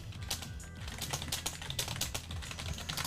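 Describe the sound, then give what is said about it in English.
Rapid, clattering keystrokes from a loud mechanical computer keyboard in a quick irregular rhythm with no one speaking. “You like my clickety clackety keyboard?”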